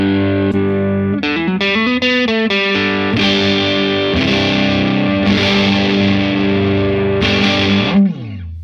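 Loud, heavily distorted electric guitar through a Celestion Greenback speaker, playing a run of big sustained chords, with quick changes early on and long ringing strums, ending in a brief noisy release.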